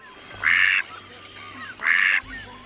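Two loud, raspy quacks of mallard ducks about a second apart, in the lagoons of the delta, with a faint low rumble of background noise between them.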